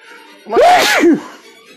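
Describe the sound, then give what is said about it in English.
A loud sneeze bursts out in a quick two-part explosion, a voiced rising cry then a sharp breathy blast, with faint background murmur before and after. “Bless you.”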